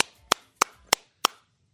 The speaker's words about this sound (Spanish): ¿Aplausos para quién? A Piqué, compa.